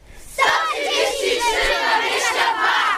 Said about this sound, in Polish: 133,22. Jest to super motto dla naszej całej akcji. Wszyscy teraz krzyczą 133,22. 3-4.